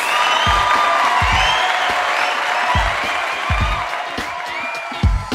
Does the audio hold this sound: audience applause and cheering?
yes